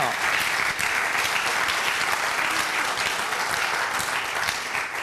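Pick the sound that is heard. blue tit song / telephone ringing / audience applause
audience applause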